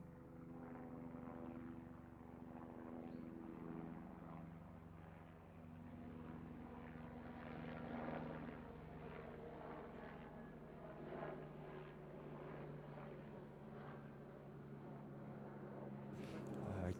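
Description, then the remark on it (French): A helicopter drones steadily overhead above the Bois de Juc forest, its rotor and engine hum filling the whole stretch at a constant loudness, with faint outdoor woodland ambience beneath and no one talking. “son sol de la forêt du bois de juc avec euh, un hélico qui passe au-dessus.”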